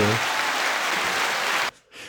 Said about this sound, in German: Finde ich eine wahnsinnig tolle Aktion, mal ein Schaufenster für sowas herzugeben. Ja, Applaus.